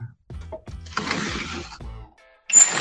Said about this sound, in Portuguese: É Porque tudo faz esse rangido aqui em casa. Quer ver? Eu vou abrir a janela aqui.